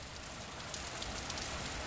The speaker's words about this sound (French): Oh, il pleut.